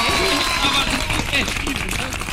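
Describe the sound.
Steady applause from a studio audience on the Jornal 96 programme, a dense even patter of many hands clapping throughout, with voices speaking and calling out over it.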